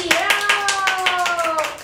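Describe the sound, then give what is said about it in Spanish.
Steady, fairly loud applause welcoming an assistant, with crisp hand claps in a quick, even rhythm, while a sustained voiced tone, like someone cheering, carries over the clapping throughout. “Y también vamos a dar un aplauso, la bienvenida a mi querida asistente”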